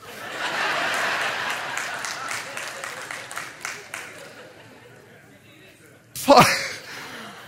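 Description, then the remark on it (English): A single sharp, loud sneeze bursts out near the end, after a stretch of diffuse crowd noise like scattered applause that fades to near quiet. “God bless you.”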